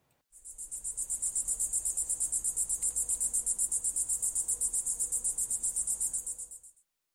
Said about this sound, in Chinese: 这次你猜对了吗？这就是蝉叫的声音哦，也是米莉最喜欢的声音了。你有没有觉得听到这个声音就有一种平静的感觉？